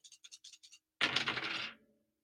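Dice rattle in a cup with six quick, rhythmic shakes, then tumble out onto a hard surface in a loud clatter that settles within a second. The dice are rolled to select a money line pick on the Charlotte Hornets against the Atlanta Hawks. No voices.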